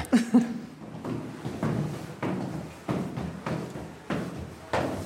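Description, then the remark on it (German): An old wooden cheese-cellar door with a wooden bolt, on an alpine farm in the Allgäu built in 1875, being worked, giving a steady series of hollow knocks and clunks roughly every half second, with no talking. “Ah, was ist das für eine Tür? Das ist noch eine Holztür. Eine ah, Holzriegel.”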